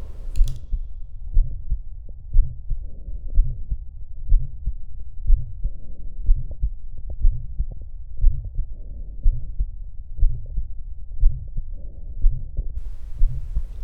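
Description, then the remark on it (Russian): Stethoscope recording at the heart's apex of a heartbeat with an innocent vibratory systolic (Still's) murmur from relatively high-velocity flow in the left ventricular outflow tract, a low humming buzz between steady, evenly spaced thumps, about twenty beats, clear with no talking. “Типичная точка шума стила.”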